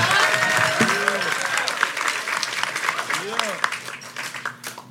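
A crowd applauds steadily for several seconds, dense overlapping claps mixed with scattered cheers and whoops, the clapping thinning out slightly toward the end.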